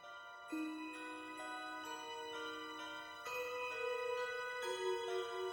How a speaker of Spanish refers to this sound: termina este tema de Final Confrontation con el tema del Joker que escuchamos anteriormente, pero hecho en Glockenspiel